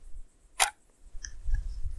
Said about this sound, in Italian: Sentito che bello scatto clac.